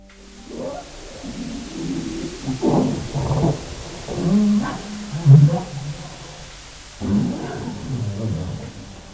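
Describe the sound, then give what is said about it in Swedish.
Low, growling underwater calls from a harbor seal come in several rumbling bursts with short pauses, moderately loud, over a dark background hiss. “Framförallt då när du har lyssnat på ett antal knubbsälar, hur de kan låta, då, då kan du plocka eh, ganska lätt att det är just en säl.”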